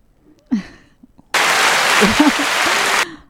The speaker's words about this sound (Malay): Ha, ramai kita orang dapat. Kita berikan tepukan.